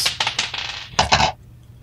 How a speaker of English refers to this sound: Sorry, that was my dice fell on the ground. I'm gonna get a new one so I don't have to do the gross lean.